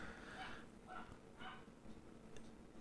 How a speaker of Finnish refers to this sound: Joku koira mökkää tuolla pihalla aika voimakkaasti.